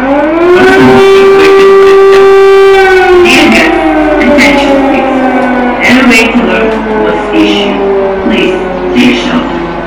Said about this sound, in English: just to give you an idea on what does it feel uh, to wake up in the middle of the night uh, when there is war going on? An red alert was issued. Please take shelter. Шановні гості, увага! Оголошена повітряна тривога.